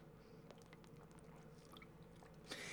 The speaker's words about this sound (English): I have a little sip of water while it's going.